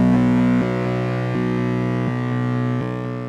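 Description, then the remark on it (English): One of several bass tracks in a song: a heavy, overdriven, grindy bass line with thick sustained low notes, shifting pitch roughly every three-quarters of a second, dense buzzy harmonics stacked above, steady and loud with no voices. “There's another bass track that's like a more grindy.”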